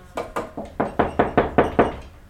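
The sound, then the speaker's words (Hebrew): A quick series of about nine firm knocks on a door, evenly paced, growing slightly louder toward the end, with no voices. “ופתאום, הבית של יהוזבד, דפיקות בדלת.”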